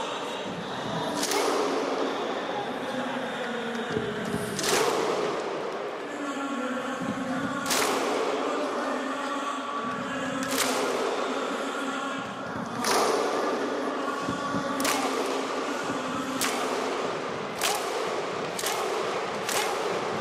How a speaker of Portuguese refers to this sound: Oh, foi aquela coisa do Euro 2016. Correct. No jogo contra a Inglaterra, a Islândia fez esta cena de bater as palmas aos adeptos. E os adeptos a eles, né?